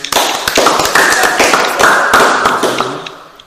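A few people clap together in a quick, uneven burst of sharp hand claps that stays fairly loud for a few seconds before tapering off slightly, with no talking.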